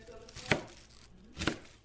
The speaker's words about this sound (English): she was busy chopping lettuce and getting everything ready for tacos.